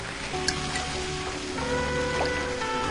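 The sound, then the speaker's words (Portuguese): A steady wash of ocean surf fills the background, with a constant low mechanical hum underneath and no distinct breaking surges. Nobody speaks. “Fico com as espumas do mar, que não verei.”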